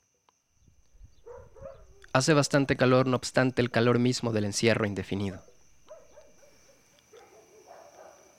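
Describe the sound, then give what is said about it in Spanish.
Dog barks sound before and after a man speaks, rising briefly at the start and returning as scattered yelps once he falls silent. “Siento que no dejo de escuchar a los perros ladrar o es que ellos tan solo están viviendo un día normal.”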